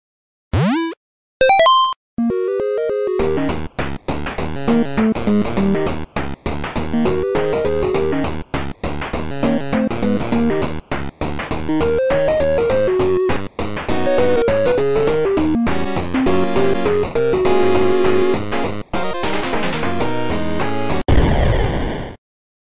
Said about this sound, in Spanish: después de haber escuchado la música de la trivia